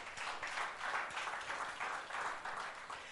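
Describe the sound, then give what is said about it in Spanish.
A church audience applauds for Christ, a dense, steady wash of many hands clapping that swells gently in waves for a few seconds, with no voices over it. “Dale un aplauso a Cristo, hermano.”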